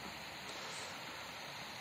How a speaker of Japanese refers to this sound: 噴水の音が聞こえますかね弁天様のあたりですね